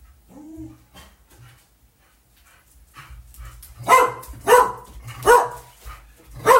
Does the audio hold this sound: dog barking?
yes